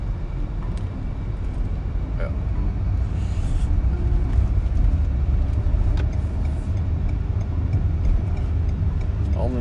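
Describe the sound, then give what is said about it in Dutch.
A car approaches along a road where cyclists are riding toward the Lochemse Berg on a 27-degree day, its engine and tyre rumble steady and fairly loud throughout, with faint ticking and scattered small rattles over the low road noise. “Ik kom wel auto aan, maar ja, dat maakt nu niet uit.”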